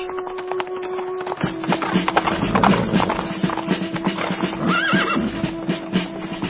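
Horse hooves gallop in a rapid, steady rhythm of sharp beats throughout, joined by a brief horse whinny near the end over a low sustained drone; a man on horseback sent from Jezreel to find out whether approaching riders are friends or enemies.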